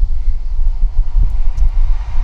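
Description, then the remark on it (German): A fast train rushes past, a loud, steady low rumble with a windy roar that fills the whole moment, no voices heard. “Ähm, sehr viele Züge.”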